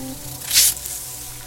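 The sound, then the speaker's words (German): A single short, breathy hiss of a snake, bright and airy, swelling and fading within about half a second, with no talking; the snake hisses while smelling with its tongue. “Ja, unser Tier riecht mit der Zunge und dabei zischt es manchmal.”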